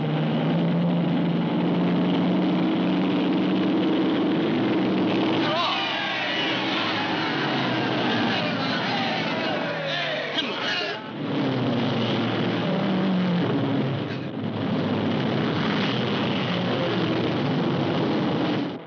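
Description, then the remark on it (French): Race cars roar around a racetrack in a loud, unbroken engine drone, with rising and falling whines as cars pass midway through, and a steady low hum underneath. “sommes au bord de la piste, mais euh, on entend l'ambiance”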